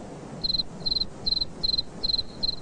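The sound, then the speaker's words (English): A cricket chirps by rubbing its wings together in a steady rhythm, six evenly spaced high-pitched trills of rapid pulses, clear against a quiet low background hum. “And this time, he chirped the most beautiful sound that she had ever heard.”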